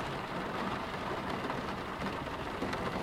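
Steady rain pours down outside a home late at night in a continuous, even hiss with a soft patter, moderately loud and unbroken throughout, with no voices present.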